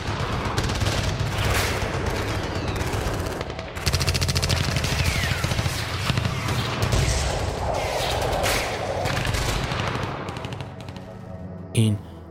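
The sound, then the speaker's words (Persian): A sustained volley of rapid gunfire from police officers shooting at a house fills the scene, dense bursts of shots cracking continuously and loudly for several seconds before tapering off, with a final sharp report near the end. “ماشه را چکاند و به جای صدای شلیک از تفنگ وی صدای شلیک گلوله پلیس ها خانه را برداشت”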